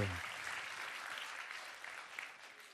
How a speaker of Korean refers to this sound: 자, 네. 이 모든 분들 대박 나시라고 여러분 큰 박수 한 번 보내주세요.